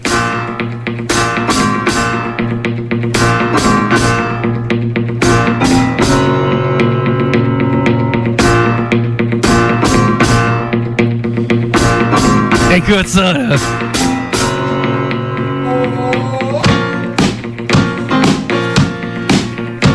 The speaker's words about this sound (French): Il continue de jouer de la guitare, puis en même temps, il fait des accords au piano, tu sais. Puis il va avec ses deux pieds.